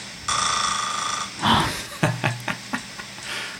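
A recording of a person snoring: a long, buzzy, rasping inhale, then a breathy gust and a few short snorting, clicking catches in the throat.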